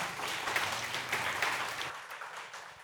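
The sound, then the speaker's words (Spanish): A crowd applauds steadily for a few seconds to thank two presenters, a dense, continuous patter of many hands clapping at once with no voices over it, fading slightly toward the end. “Un aplauso para ellos.”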